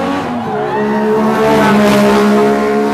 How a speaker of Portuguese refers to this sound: Emerson Fittipaldi acelerando a clássica Lotus de Ayrton Senna. Sente o som. Olha lá.